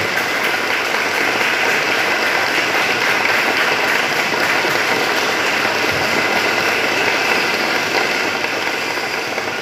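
A crowd applauds loudly and steadily, a dense wash of clapping that holds at the same level for about ten seconds with no voices over it.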